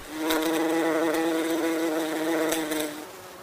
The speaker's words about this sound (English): Put out the food, they'll come buzzing on by. This one's a bumblebee. Big boy.